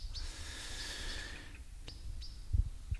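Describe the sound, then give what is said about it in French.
A few short, high-pitched bird calls ring out at irregular intervals, fairly faint, at a small pond in the forest of Rambouillet near Montfort-l'Amaury, over steady low rumbling outdoor noise with a couple of soft thumps near the end. “Il y a encore quelques bruits d'oiseaux, c'est sympa.”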